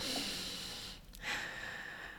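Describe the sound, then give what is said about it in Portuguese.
Exaggerated breathing of someone controlling their breath while meditating: one long airy inhale, a brief pause, then a forceful, drawn-out exhale, like someone deliberately demonstrating slow controlled breaths. No speech. “a pessoa está a controlar a respiração.”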